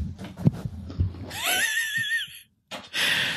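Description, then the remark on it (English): After a few soft handling thumps, a beer can snaps open into a loud, sustained fizzing hiss that cuts off briefly and then surges again as it foams over everywhere. “Uh, he, he cracked it open. It fizzed everywhere.”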